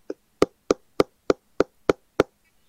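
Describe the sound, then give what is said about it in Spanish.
Eight sharp knocks on a wooden door of a house in a steady, fairly quick rhythm, clear, with silence between them and no voices. “Nada más de momento se oye en la puerta de madera.”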